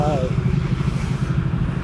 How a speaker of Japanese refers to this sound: ちょっとここ信号も渡るんで、一回ちょっと止めていきたいとは思います。はい。ちょっと車通るところでね、信号の待ちのところがあるんで、少々お待ちください。